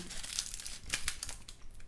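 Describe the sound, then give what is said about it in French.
Crisp, hot börek pastry crunches as it is bitten and chewed, a quiet run of dry, crackly bursts with no talking. “Hum, ça croustille.”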